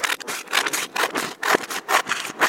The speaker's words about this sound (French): Le son d'une bonne photo, oui, alors ça, c'est le son de l'enveloppe que tu ouvres avec le chèque qu'on t'a envoyé parce qu'on t'a acheté la photo.